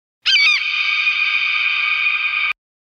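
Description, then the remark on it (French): A single shrill, piercing cry of a bearded vulture in the mountains, loud, starting with a quick warbling onset and then holding one steady screech for about two seconds before cutting off abruptly. “Il ne reste qu'à espérer tout à coup, un cri strident rompt le silence.”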